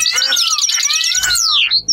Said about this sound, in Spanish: Se sentó en un banco del parque. No podía oír nada más que los pájaros.